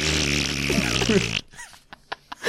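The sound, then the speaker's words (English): A loud, buzzy fart noise made with the mouth, a single sustained raspberry lasting over a second, followed by a few faint clicks and short breathy sounds. “you, you, you can play the part of the fart here.”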